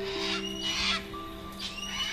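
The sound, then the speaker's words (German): A white cockatoo with a bright yellow crest, perched in a tree, chirps in a few harsh, raspy bursts, each a short squawk separated by brief pauses, over a steady low hum. “Neugierig zwitschert der schöne Papagei euch zu.”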